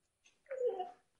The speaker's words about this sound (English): you can hear my dog in the background. He's really pumped.